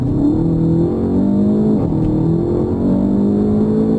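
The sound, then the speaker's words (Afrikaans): The engine of a Volkswagen Golf GTI Clubsport, the model marking the Golf GTI's 40th anniversary, revs steadily and loudly, its pitch rising in repeated sweeps with a gear-change dip partway through, a deep rumbling note with no voices over it. “klink die Golf GTI Klapsport waarmee Volkswagen sy Golf GTI se 40ste verjaarsdag vier.”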